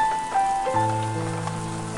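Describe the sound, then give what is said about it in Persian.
Steady rain pours down in a continuous hiss, with sustained musical tones droning on top and no voices. “بارون ریشه ریشه”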